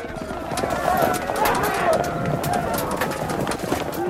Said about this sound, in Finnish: Raskaiden kärryjen puiset pyörät hakkaavat kadun marmorikiveykseen aivan lähellä.